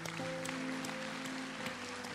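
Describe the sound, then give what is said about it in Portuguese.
An audience applauds for the Lord Jesus, a dense, steady wash of many hands clapping for about two seconds, with a sustained low musical tone, like a held keyboard chord, humming underneath. “Outro aplauso para o Senhor Jesus.”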